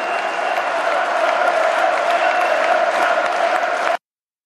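A large crowd roars with sustained cheering and rhythmic chanting of "Höcke", a dense, steady wall of voices that continues at full volume for about four seconds before cutting off abruptly.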